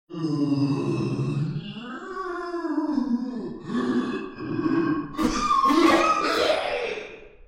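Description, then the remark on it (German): A voice imitates corpses on the ground coughing up dust: a long, strained groaning rasp that rises and falls, then breaks into rough, breathy hacking coughs. Fairly loud, with no other sounds. “husten Staub auf”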